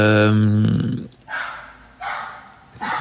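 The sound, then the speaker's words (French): A neighbour's dog barks in a living room in three separate, fairly loud bursts spaced about a second apart, following a brief harmonic vocal sound at the start. “Je vous présente le chien de ma voisine, voilà, qui est totalement insup”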